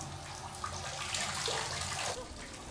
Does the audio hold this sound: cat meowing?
no